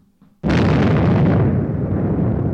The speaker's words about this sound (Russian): При ударе об землю от нее отсоединилась боеголовка и стала, как мячик, прыгать по направлению к городу. Раздался взрыв